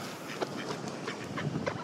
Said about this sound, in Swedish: Jag menar förstås, hör ni ankorna? Det är nu många olika sorters anka, gräsand, vanlig allmän anka. Säkert en kråka också någonstans där.